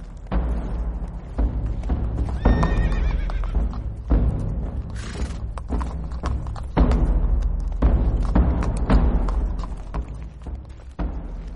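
A horse carrying a rider whinnies loudly over a steady rhythm of hooves thudding and clopping, with the hoofbeats continuing throughout and no voices present.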